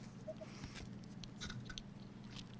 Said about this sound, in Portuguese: Ah, então eu vou dar mordida no sonho, peraí.